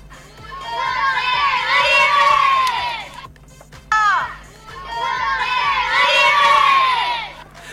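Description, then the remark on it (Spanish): A crowd of young children from mini handball teams cheers and shouts at a handball event at a club in Caballito, in two loud, high-pitched bursts, split by a brief dip and a sharp shout, with a faint low hum underneath. “Esas son las voces del futuro. Esos son los chicos que, defienden hoy en día la camiseta de los minis y que el día de mañana van a estar defendiendo.”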